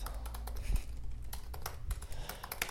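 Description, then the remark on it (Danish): Rapid, irregular clicking of keys on a computer keyboard as a man writes a letter to the new owner of his apartment, with a low rumble underneath and no voices. “Han er i gang med at skrive et brev til den nye ejer af hans lejlighed”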